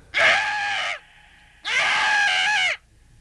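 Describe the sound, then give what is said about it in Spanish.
Two loud, harsh, piercing peacock screams, each lasting about a second with a brief pause between, with no talking. “El pavo real perderá su melodiosa voz. En su lugar, emitirá un grito destemplado y desagradable.”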